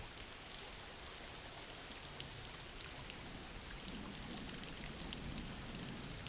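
Steady rain falls throughout, a dense, even hiss with soft scattered droplet taps, fairly quiet and unchanging, with no voices.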